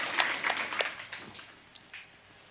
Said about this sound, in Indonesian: Kita beri tepuk tangan lagi buat Tuhan Yesus